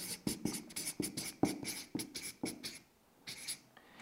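A pen scratches across a sheet of paper in quick, rhythmic strokes, fairly quiet, with a brief pause before a few final marks; no one speaks.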